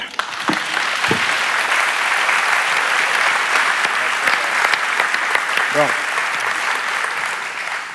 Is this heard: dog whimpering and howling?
no